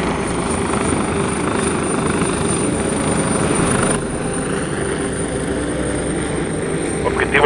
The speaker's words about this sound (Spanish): Aquí viene el helicóptero.